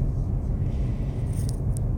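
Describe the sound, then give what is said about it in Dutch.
A steady low rumble fills the inside of a moving car, with faint high ticks near the end and no voices. “Vandaag weer een podcast aflevering vanuit de auto.”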